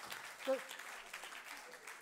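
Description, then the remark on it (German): Audience applause: a steady, dense wash of clapping held at a fairly even level for about two seconds, with a brief tonal voice-like blip early on. “Lasst ihm mal einen riesen Applaus geben.”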